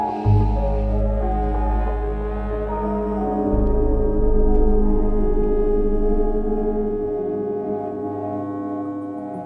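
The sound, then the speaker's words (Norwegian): A futuristic hum from the video game Death Stranding of something hovering overhead: a deep, steady drone with layered metallic tones that swells slightly and fades near the end, loud and continuous with no voices. “Ja, dette er lyden av noe som som svever der oppe.”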